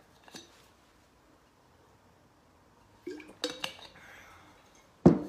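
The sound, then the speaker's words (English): A glass clinks lightly, then after a quiet pause comes handling and soft sipping noises from someone drinking water, ending with the glass set down with a solid knock. No one speaks. “I'm going to have a swig of my water.”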